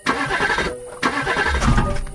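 A car engine cranks with a rapid, rhythmic whirring in two loud bursts separated by a brief pause, never catching or starting because the car is dead. No voices are heard.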